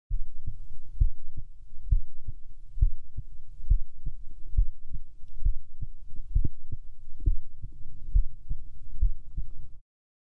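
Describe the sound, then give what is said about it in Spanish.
A heartbeat through a stethoscope: muffled, low thumps repeating at a steady, even pace for about ten seconds over a constant dull rumble, with no voices. “El tema es que realmente los médicos tienen que aprender, en general, que, tienen que aprender a utilizar el estetoscopio, cómo escuchar. Pero es un elemento bastante ruidoso.”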